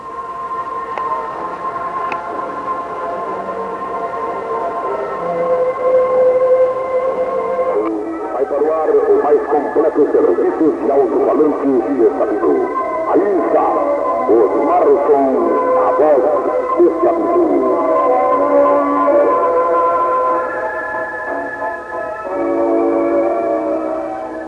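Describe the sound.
A loud station identification jingle for Rádio Osmar Som plays for about twenty-five seconds at six o'clock, a dense, bright musical bed with what sounds like an announcer's voice woven through it, swelling after the opening seconds.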